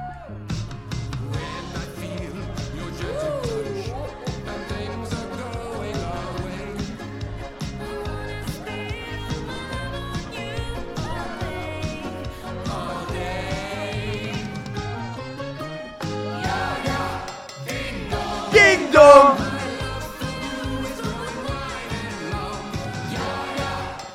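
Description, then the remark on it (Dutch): A theme song plays loud and continuous, with a steady beat, layered instruments and singing voices throughout. Near the end the vocals rise into a brief, louder, higher burst. “Maar ik denk wel dat we gewoon met de standaard tune moeten beginnen”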